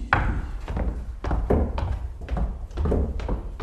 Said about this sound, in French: voulez-vous venir ici, faire les bruits de pas